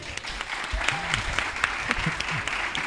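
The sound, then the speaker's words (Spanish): A crowd applauds the Museo del Prado winning a Webby award for its TikTok account, a dense patter of many hands clapping at a fairly loud, even level for a few seconds, with faint voices murmuring underneath. “Un aplauso, por favor”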